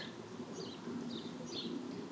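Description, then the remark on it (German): Outdoor ambience at Lake Tegernsee in southern Germany: a few high, bright bird chirps over a steady, soft wash of gently splashing water. No one speaks. “Ja, leichtes Wasch Wasserplätschern und Vogelgezwitscher.”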